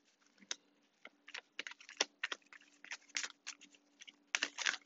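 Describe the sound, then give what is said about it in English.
A deck of tarot cards being shuffled during a card reading, a run of quick papery flicks and taps at an uneven pace that builds into a denser, louder riffle at the end. No one speaks. “I'm gonna shuffle the deck one more time because we're about to go, and I'm nosy.”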